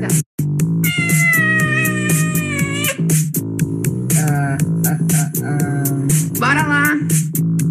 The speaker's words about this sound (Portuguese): Mentira, eu amo essa gatinha, eu amo você.